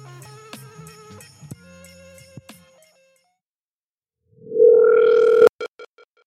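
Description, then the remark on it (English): A telephone ring back tone, played as a transition back into a recording after a commercial break: after a brief run of soft electronic tones, a loud steady buzzing tone swells up, cuts off abruptly, and leaves a few quick fading echoes. No one speaks. “I I was laughing when we came in because we have a ring back, which you probably just heard to ring us right back into the audio um, from the commercial.”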